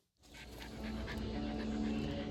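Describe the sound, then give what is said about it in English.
A dog pants rapidly and steadily, quick breathy huffs repeating for a couple of seconds over a low, constant background hum, outdoors at Rock City. “All I knew was that we were going somewhere where we could take the dogs.”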